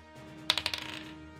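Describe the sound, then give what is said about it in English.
A die rolled for a persuasion check in a tabletop role-playing game clatters onto a hard tabletop: a sharp first hit, then a quick run of smaller, fading bounces and rattles before settling, fairly clear with no talking. “Roll persuasion.”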